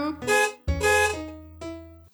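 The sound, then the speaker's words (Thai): Three buzzy, steady car horn honks in a row, a short blast, then a longer held one, then another short one, loud. “บีบแตรกำกำแบแบบีบแตรดังลั่นระวังนะจ๊ะ หลบหลีกให้ทันปิ้นปิ้น”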